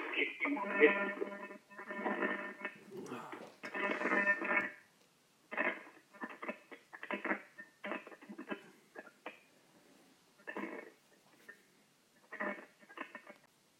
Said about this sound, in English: All right, we got interrupted by a whole bunch of static. I, I must be all all these conference calls we're doing.